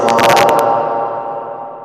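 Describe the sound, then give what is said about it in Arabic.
Echo on an audio line: a few quick bursts of sound trail off into a sustained, hollow ringing that slowly fades over about two seconds, with no clear speech. “اذا كان اكو جهاز ثاني تستمع من عنده اذا ممكن انه تلغيه حتى نقدر نستمع لحضرتك لانه ما يزال اكو مصدر صدى بالصوت”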